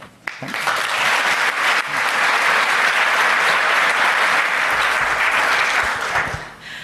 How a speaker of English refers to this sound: I think if I let them, they'll just keep applauding, but I think we probably do need to move on to the next stage.